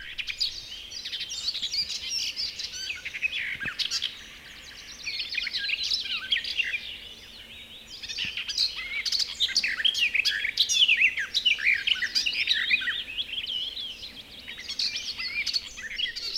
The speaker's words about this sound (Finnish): Tässä talomme nurkalla satakieli ja viitakerttonella olevat kilpaa ottavat kuin mittaa toisistaan. Silloin kun nämä lajit soivat tässä kaiken yötä, silloin on kesä.